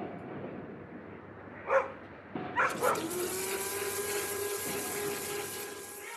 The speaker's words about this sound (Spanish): Esta sería una construcción mientras la lavadora está puesta, con un perro grande en casa, alguien en la cocina cocinando y los vecinos peleando.